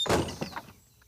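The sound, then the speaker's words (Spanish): A man opens the door of a stone house with a solid initial thud followed by a couple of softer rattling knocks that quickly fade, with no one talking. “Un hombre de pelo y bigote blanco abrió la puerta y los dejó entrar.”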